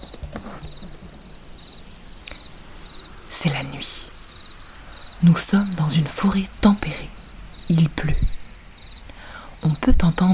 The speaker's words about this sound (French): les grillons